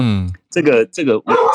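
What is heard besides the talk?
dog barking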